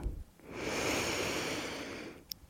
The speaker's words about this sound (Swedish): Vi tar ett djupt andetag in och ett ut innan vi börjar. Andas in.